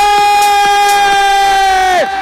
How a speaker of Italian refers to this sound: lo facciamo un applauso